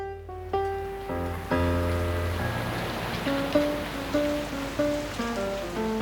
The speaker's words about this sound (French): avec pluie qui tombe et portière ouverte.